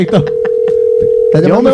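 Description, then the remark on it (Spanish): A steady electronic telephone tone hums for about a second, with faint short clicks over it, as a call is placed to a Spanish phone number, while voices speak briefly just before and right after it. “Sí, yo me voy al riesgo a ver si me contesta”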